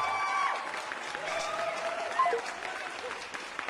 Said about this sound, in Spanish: Muy bien, un aplauso a Nicole.